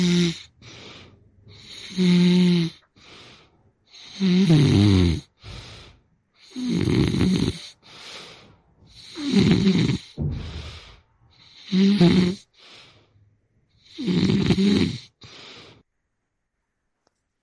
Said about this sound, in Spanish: vamos con Mariana Montes eh, son los ronquidos de su esposo